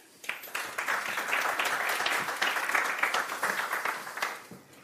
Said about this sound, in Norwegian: En applaus til alle tre.